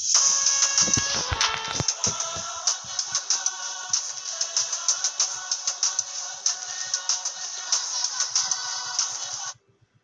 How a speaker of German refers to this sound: Ja, dein Mixtape 2 mache ich mal an.